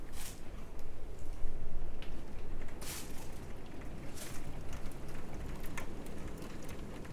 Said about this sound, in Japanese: そして雷もバリバリ言ってますさっきまでは遠かったんやけど結構近くで鳴り始めましたはいまあこんなことも珍しいので今日は雨をバックグラウンドにお話できたらいいかなと思います。